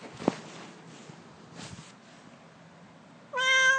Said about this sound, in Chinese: 你，你抱不起来，好，好了，猫咪。为什么这样子啊？有了，好可爱呀！猫咪。